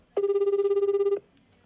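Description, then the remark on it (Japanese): A single one-second burst of a telephone ringback tone, a steady mid-pitched warbling buzz heard on the line while an outgoing call connects to one of four people who applied, clear and alone, followed by quiet. “えー、君と一緒に回れるのはですね名前がえちょっとちょっと電話かけてみます”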